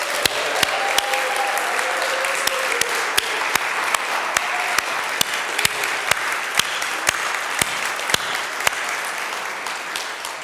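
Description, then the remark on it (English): An audience breaks into a sustained round of applause for the musicians who led them in song, dense overlapping clapping with a few sharp individual claps standing out, steady and fairly loud for about ten seconds, with no talking. “So, can we please give them a round of applause?”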